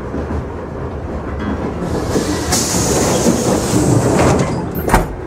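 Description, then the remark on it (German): A train carriage door slides and bangs shut near the end behind people who have just jumped into the next carriage, over a steady rolling rumble and hiss from the moving train. No one speaks. “Sie rennen los und springen in den nächsten Wagen. Als die Tür hinter ihnen zufällt, stehen sie plötzlich in völliger Dunkelheit.”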